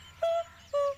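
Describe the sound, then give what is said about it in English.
Two clear, steady whistled bird notes from the dawn chorus, each held briefly with a short pause between, standing out above a low background hum. “Very few of us get up early enough to hear the birds sing in the dawn.”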